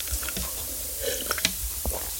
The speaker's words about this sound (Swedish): Nu måste jag ta lite vatten, förlåt.